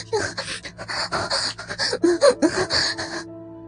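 Heavy, rapid panting in a quick, steady rhythm of breathy huffs, loud and without talk, stopping abruptly just before the end.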